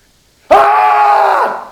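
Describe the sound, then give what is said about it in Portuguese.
A man falling down a cliff on a rope lets out a single loud, agonized scream as the rope suddenly pulls taut, bursting in after a moment of silence, holding strained for about a second, then trailing off. “Você escuta um grito”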